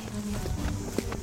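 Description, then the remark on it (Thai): A few soft footsteps of two people land one after another at an unhurried walking pace, fairly quiet, as they walk along a fence into a garden late at night, over a low, steady background rumble with no talking. “เข้าไปในสวน เดินเลียบรั้วเข้าไป”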